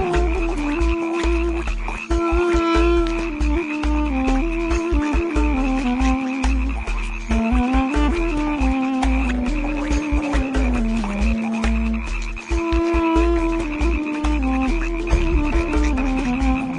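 A dense chorus of frogs croaks loudly and without pause, many overlapping calls layered with deep rhythmic pulses, and no one speaks.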